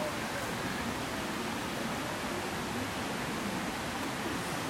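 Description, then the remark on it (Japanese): A small stream babbles and rushes steadily throughout at night, at a spot where fireflies are being watched, a continuous, even wash of flowing water at a soft, constant level with no voices. “今日はですねホタルを見にやってきておりますこのせせらぎと,、えー、とカジカガエルの声が入るかな”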